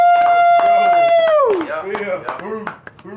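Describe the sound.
A small group claps steadily and briskly while a voice lets out a long sustained whoop that slides downward, followed by scattered cheering.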